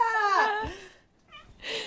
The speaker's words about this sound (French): bonjour de mon chat.